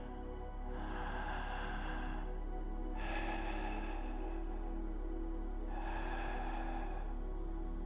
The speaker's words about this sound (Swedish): Det är okej. Okay. Ta ett djupt andetag. Andas ut. Lyssna på min andning.